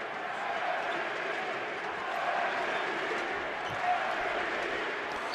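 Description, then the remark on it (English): An arena crowd at a Jazz basketball game, late in the third quarter, chants "MVP" in a dense, steady roar of many voices that swells slightly at times, with a faint ball bounce audible under the noise. “Crowd chanting MVP.”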